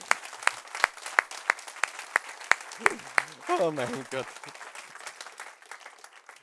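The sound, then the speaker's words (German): Thin audience applause for Jesus, made of sparse, evenly spaced sharp claps in a steady rhythm, with a brief spoken exclamation partway through before the clapping thins out and fades. “Nein, Geben wir Jesus einen gescheiten Applaus, einen richtig gescheiten.”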